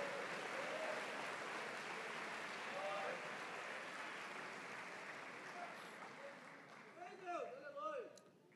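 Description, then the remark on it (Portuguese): An audience applauds the Lord in a steady, dense wash of clapping that gradually thins, with voices calling out over it near the end. “Se você vai aplaudir, Aplauda o Senhor.”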